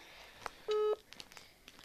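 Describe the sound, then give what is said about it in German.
A WhatsApp call ringing tone as someone is being called: one short, steady electronic beep of two blended mid pitches, fairly loud, surrounded by a few faint clicks and soft background noise. “Ähm, wir gehen mal auf WhatsApp und rufen sie immer mal an und mal gucken, ob sie jetzt überhaupt geht.”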